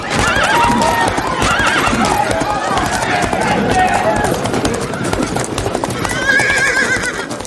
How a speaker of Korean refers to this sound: 집채만한 말들이 빠른 속도로 달려오자 시위를 하던 사람들 사이에서 비명이 터져나왔다.